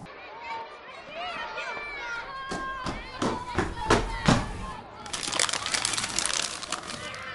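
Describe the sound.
High children's voices call out and laugh as quick running footsteps thud, then the noise swells into a lively crowd of kids running and playing in a schoolyard.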